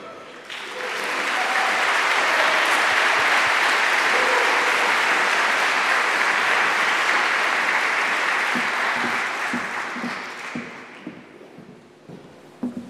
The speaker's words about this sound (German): Ja, vielen Dank für den schönen Applaus.